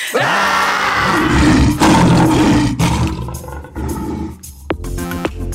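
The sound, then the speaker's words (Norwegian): Several people roar together after a count of one, two, three, a loud, raw, sustained group bellow in a couple of long surges that gradually fade into scattered trailing voices, like people imitating a big cat's roar. “Orker vi å ta et brøl, eller?”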